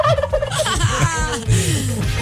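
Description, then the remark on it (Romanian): A turkey gobbles loudly, a rapid, burbling warble of throaty notes running for a couple of seconds with no talking over it, played as a sound effect on Rock FM's Morning Glory show. “Mi-ai cu... pus în curcan”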